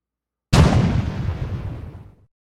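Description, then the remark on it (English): A single loud cannon blast from a small swivel-mounted cannon fired by the French aboard a ship during a boarding fight erupts suddenly, its deep booming roar decaying and rumbling away over nearly two seconds, with no voices present. “The French had swiveled some small cannon to face the onrushing Englishmen half a dozen men fell like they were bowling pins.”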